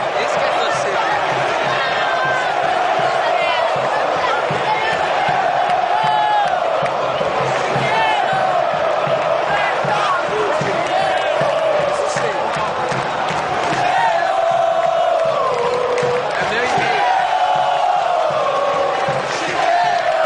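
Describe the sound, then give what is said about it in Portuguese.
A huge stadium crowd of Palmeiras football fans chants together in a loud, continuous sung refrain, voices rising and falling in unison with a dense, echoing roar underneath. “O Som das Torcidas”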